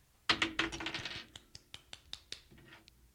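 A handful of dice clatter onto a hard surface as they are rolled to select money line betting picks, a loud initial rattle followed by a series of sharp, diminishing clicks as they bounce and settle, with no talking.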